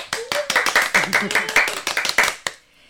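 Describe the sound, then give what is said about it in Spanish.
A short burst of audience applause: quick, sharp, overlapping claps at a brisk uneven rhythm for about two and a half seconds, then stopping abruptly into near silence. “Ale es nuestra experta en lenguaje, so aplausos por favor.”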